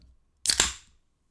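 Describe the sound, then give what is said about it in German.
A can of Super Bock beer is cracked open: two sharp, quick clicks in close succession followed by a brief fizzing hiss that fades within half a second, with no talking. “Und hier, äh, ich trinke aber jetzt ein Superbock-Bier, was ich jetzt gleich mal aufmache, damit du mir sagst, was es für ein Superbock-Bier ist.”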